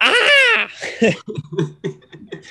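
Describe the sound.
A person imitates a triumphant scream made after a rebound and putback in pickup basketball: one loud, high-pitched, sustained yell, then a few choppy bursts of laughter.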